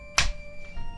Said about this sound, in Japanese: はい、じゃあ、一礼、二拍手、